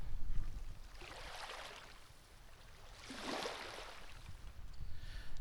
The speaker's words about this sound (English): So I was just trying to mic up the sound of the ocean waves. Let me see if you can uh, hear the sound.